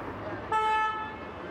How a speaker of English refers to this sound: Traffic roars by in the Lawrenceville neighborhood of Pittsburgh, northeast of downtown.